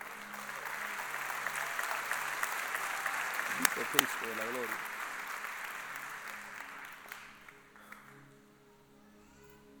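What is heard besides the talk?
audience applauding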